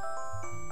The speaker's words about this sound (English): Sorry, that's my alarm going off.